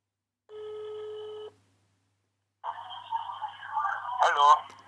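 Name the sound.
telephone ringing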